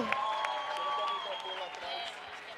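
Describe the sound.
An audience breaks into steady applause, many hands clapping at once in a dense, continuous patter, with voices calling out over the clapping.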